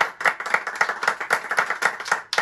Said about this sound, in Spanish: Un aplauso, por favor. Un aplauso.